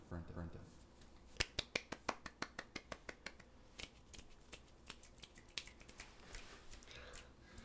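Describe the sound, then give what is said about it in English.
Finger snapping after a poem is read aloud, as done at poetry houses: a quick run of sharp snaps, about a dozen crisp clicks in a steady rhythm at first, then scattered, irregular snaps, with murmuring voices faintly underneath. “Is they snap when someone's done it.”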